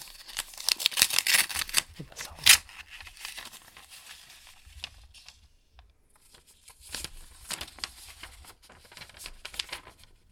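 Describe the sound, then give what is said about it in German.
Paper crinkling and tearing as a letter is opened while walking to the door: a burst of crisp rustles, one sharp rip, a quiet pause, then more soft crackling and shuffling of the sheet. No speech. “öffne den Brief dann beim zum Tür gehen und schaue dann innen drin noch einmal rein, bevor ich dann den mhm.”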